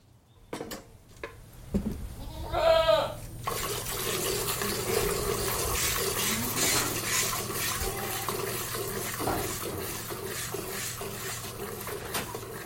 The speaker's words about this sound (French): Donc là, ben, c'est la partie chèvrerie avec euh, le quai de traite où on monte 16 euh, chèvres hein, et on en traite 4 à la fois.